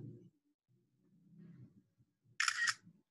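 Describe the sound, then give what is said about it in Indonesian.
A single sharp camera shutter click from a print-screen screenshot rings out loudly and briefly near the end, following quiet low murmuring voices in the background. “Ah, ada suaranya. Kedengeran ya? Iya, itu pakai apa, Bang? Hah? Enggak, ini ya. Pakai apa? Print screen, print screen.”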